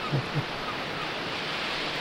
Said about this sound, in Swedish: vanlig jävla filrekordning från en strand med, med lite pålagda måsar